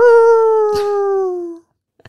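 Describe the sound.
A person imitates a wolf howl with one long, loud, steady tone that sags slightly in pitch before cutting off, followed by a couple of faint, brief clicks.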